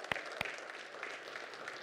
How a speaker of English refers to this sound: Yeah, you go ahead, clap. It's okay.